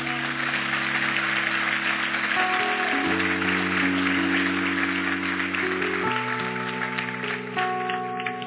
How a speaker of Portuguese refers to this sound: Vamos aplaudir forte.